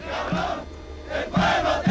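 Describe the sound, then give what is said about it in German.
A large crowd in Bolivia shouts and cheers jubilantly over the ousted President Sánchez de Losada, a dense roar of many voices that swells in loud bursts, with a brief dip in between before the shouting surges again. “Zur selben Zeit Freudentaumel über den gestürzten Präsidenten.”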